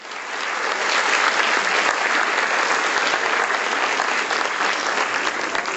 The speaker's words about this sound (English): Let's welcome Supreme Master Chin Hai with a round of applause.